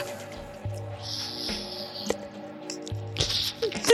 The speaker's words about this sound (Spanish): Es que intentaba saborear el chocolate para tratar de derretirlo con mi lengua, ¿sabes?